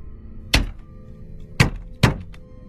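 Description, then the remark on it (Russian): Three sharp knocks on a window, unevenly spaced: one alone, then a pause before two more in quick succession, solid against a faint low background hum. “Стук в окно”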